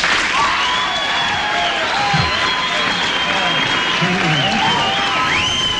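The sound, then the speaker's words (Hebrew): A large audience applauds steadily, dense clapping mixed with cheering and a few whistles, loud and sustained throughout as a musician walks onto the stage at a singer's invitation. “… מזמין את החבר הטוב שלו, אז עדיין בחיים את …, שעולה לבמה לכל מחיאות הכפיים.”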